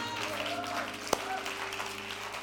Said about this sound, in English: Come on, give that guy right there a round of applause.